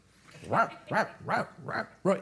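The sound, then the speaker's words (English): A dog barks five times in a quick, steady rhythm, each bark loud and clearly separated by short pauses, as it watches two other dogs play outside. “My dog goes outside and watches them play and barks at them.”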